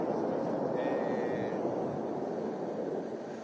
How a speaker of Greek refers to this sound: Αυτό που ακούτε είναι ένα πύραυλο δεν το βλέπουμε, αλλά ακούτε έναν πύραυλο αυτή τη στιγμή.